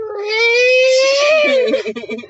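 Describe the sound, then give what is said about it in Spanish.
A person imitates cats yowling at night: one loud, wavering, nasal wail that rises and holds for over a second, then breaks into a shaky, sputtering tail. “Los gatos, justo, o sea, en toda la noche no habían hecho nada de bulla.”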